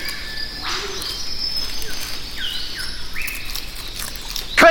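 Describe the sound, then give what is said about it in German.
An Eastern whipbird, an olive-green, black-crested bird of eastern Australia, gives its whip-crack call, a sharp sweeping whistle that snaps through the air, followed by several shorter upward-slurred bird notes over a steady bed of buzzing insects and faint chirps. “Der impulsartige Ruf des Eastern Whipbirds erinnert an einen Peitschenknall,”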